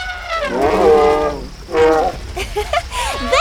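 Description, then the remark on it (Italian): A voice imitates an elephant's trumpeting among African elephants: one long, loud, brassy blast, then a shorter one, trailing off into a few squeaky, wavering calls. “Se insisti a chiamare i barriti bramiti, la prossima volta ti porteremo in Canada tra i cervi e non tra gli elefanti d'Africa.”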